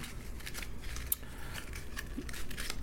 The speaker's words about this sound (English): that's being picked up on the mic. Oh, I'm crumbling a paper in my hand.